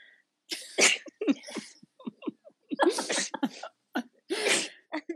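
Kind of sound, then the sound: human body sound, sneeze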